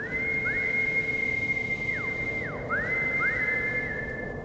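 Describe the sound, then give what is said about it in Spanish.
A person whistles several times to call their dog: long, steady notes broken by quick downward and upward slides, fairly loud and clear over a constant low background hum, with no talking. “Preocupado, comienza a llamarlo con el silbido que acostumbraba.”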